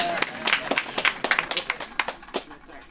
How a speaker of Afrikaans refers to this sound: Kom ons gee weer vir haar 'n lekker hande klap.